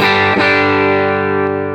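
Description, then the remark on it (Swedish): A distorted electric guitar on its humbucker pickup rings out one loud, thick chord that sustains with a slow fade, harmonically rich and gritty, with no voices. “Det här är handbacken då.”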